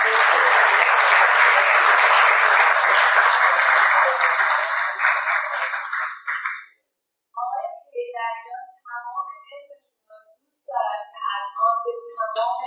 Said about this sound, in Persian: تشویق اساسی بفرمایید